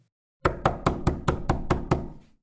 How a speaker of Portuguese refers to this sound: Certo dia, alguém bateu a porta.